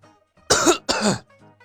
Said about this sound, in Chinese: 岳不群咳嗽了一声，陡然提高了音量